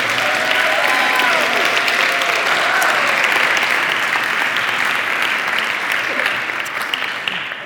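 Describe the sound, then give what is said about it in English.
A church crowd claps steadily for the executive pastor in a full, sustained round of applause lasting several seconds, dense and loud throughout, with a few faint voices mixed in before it begins to thin out at the end. “And so she deserves another round of applause as well.”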